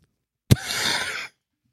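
A single breath exhaled close to the microphone, starting with a soft burst and trailing off as an airy, breathy rush lasting under a second, with silence before and after.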